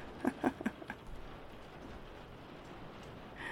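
Steady rain falling outside patters in a soft, continuous hiss, with a few louder drips or taps near the start before settling into an even background wash.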